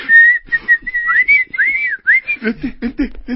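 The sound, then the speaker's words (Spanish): A shrill whistle tone wavers and slides up and down in pitch for about two seconds, followed by a string of short, choppy bursts of voice-like sound. “Aquí tienes un silbato.”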